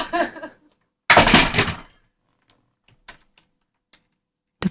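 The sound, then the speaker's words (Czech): A brief laugh, then an adjustable chair seat shoots up with a loud, rushing whoosh lasting under a second, followed by a few faint clicks and taps. “Počkej, jak se to zvedá? Můžeš to zmačknout, jak v autě.”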